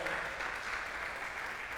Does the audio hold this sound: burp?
no